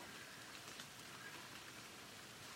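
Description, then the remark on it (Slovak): Soft, steady rain patters continuously with a dense hiss of fine drops, even and unbroken throughout, fairly quiet with no voices. “Nechajte svoju myseľ naplniť zvukmi jemného dažďa, ktorý môže komfortne uvoľniť vaše telo.”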